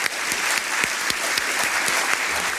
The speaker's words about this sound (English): So really, let's applaud yeah.